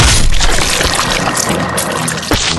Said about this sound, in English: The back tires run over that old lizard beast's belly and explodes in a shower of super grody guts, goo, and filth.